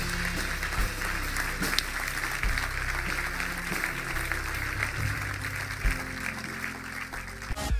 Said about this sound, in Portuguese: Será que podemos dar uma grande salva de palmas?